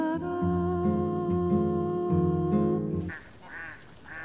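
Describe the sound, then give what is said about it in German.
Ducks at a bird pond in the evening quack loudly and steadily in overlapping, nasal bursts for about three seconds, then trail off into a few softer, scattered quacks at the end. “Abends saßen wir an ihrem Vogelteich.”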